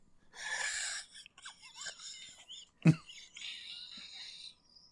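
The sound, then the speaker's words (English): Someone imitates a zombie with raspy, breathy moans and gasps, broken into uneven bursts, with a sharp, harsh outburst midway before the groaning trails off. “I wonder what sounds the French zombies make in a bad accent.”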